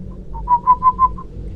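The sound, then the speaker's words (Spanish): A soft, bird-like human whistle, used by someone to speak very quietly to another person: five or six short, evenly spaced notes at a steady pitch, rising slightly in loudness through the middle, over a low background rumble. “Estuve a punto de gritar de no sé por qué escuché que alguien me hablaba muy despacio, con un silbido como de pájaro.”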